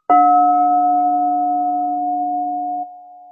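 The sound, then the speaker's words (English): A crystal singing bowl containing gold, with an amethyst sacred-geometry crystal adhered to its wall, is struck once and rings out alone with a steady, layered tone: a low hum and a bright, pure upper note that slowly fade, no voices. “Hands down, my favorite bowl. It's just, I think because it's the crystal plus the precious metal.”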